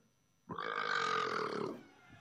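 A single loud, drawn-out burp lasting over a second, deep and rumbling with a raspy edge, made over a video call, then fading into quiet.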